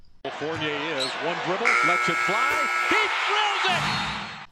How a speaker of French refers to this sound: le buzzer de cette première mi-temps retentit.